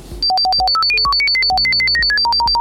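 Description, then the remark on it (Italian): A rapid string of about twenty short, computer-generated electronic tones, each a clean pitched beep encoding a digit of a phone number, playing at a brisk, steady pace, loud, with nothing else around them. “Infatti se provate ad ascoltare questo file che è stato generato e tra l'altro il, il suono che state per sentire è il suono del mio, è, è la, la, la, sono i numeri del mio numero del telefono.”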